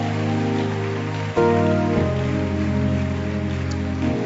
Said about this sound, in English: Keep clapping your hands for the Lord.